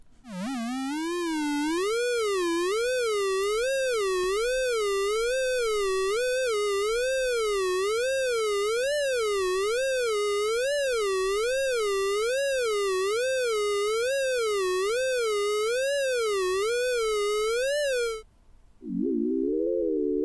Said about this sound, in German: haben wir die noch im Kopf, ist also die Sonifikationsvariante mit den etwas schrilleren Tönen